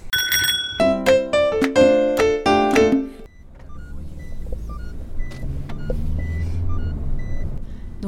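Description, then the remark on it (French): Bright ringing chime tones for the first few seconds, then the steady low rumble of riding inside a moving car, continuous, with no talking. “là, on est en voiture.”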